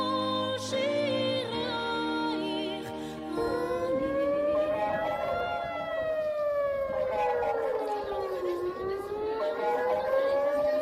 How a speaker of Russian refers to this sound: Так звучат звуки сирены системы оповещения о ракетных ударах или обстрелах Цива Адом. И сейчас День Иерусалима, он проходит вот именно под такими, под такими звуками